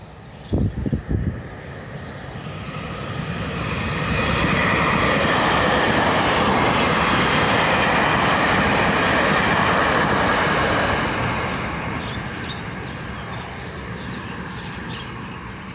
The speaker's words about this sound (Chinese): 诶，刚好有火车经过。